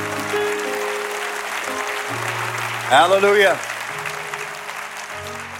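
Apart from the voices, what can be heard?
audience clapping hands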